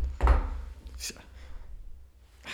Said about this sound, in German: Du sollst halt nicht hier alles immer so laut auf den Tisch knallen. Ach so, stimmt, ja. Die zu Hause, so. die, die, die Zuhörer, die denken gerade auch wieder, hier ist eine Bombe eingeschlagen.